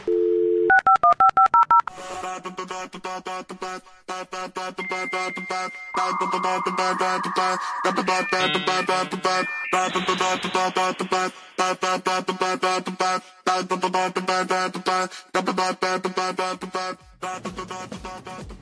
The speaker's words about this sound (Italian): Ma che bella rubrica, ma chissà chi l'avrà fatta. Questa base qua mi piace sempre